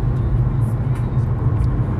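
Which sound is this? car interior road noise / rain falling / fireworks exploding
car interior road noise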